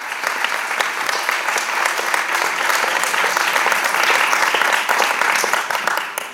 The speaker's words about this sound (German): Ja, vielen, vielen Dank für den lieben Applaus.